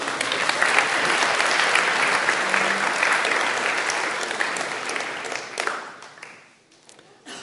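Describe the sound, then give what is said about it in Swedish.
An audience applauds in a dense, steady wash of clapping that holds strong for several seconds, then thins out and fades, ending with a few scattered claps. “väl värt en applåd tycker jag.”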